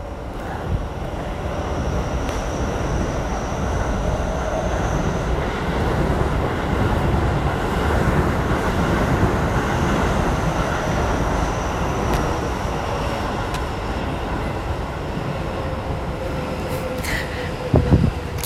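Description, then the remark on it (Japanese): A train rumbles steadily past in heavy rain, a continuous broad roar with faint whining tones, lasting throughout with no voices and a brief clatter near the end. “それこそおとといなんかは電車の音とか全くしてなかったんですけどやっと動き出すようになって日常って幸せなことなのかなとかみしめております”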